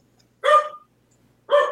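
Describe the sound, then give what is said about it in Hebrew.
A dog barks twice, two sharp, fairly loud barks separated by a short silence, with no talking around them. “אני כל כך רגילה לנביחות, זה בסדר.”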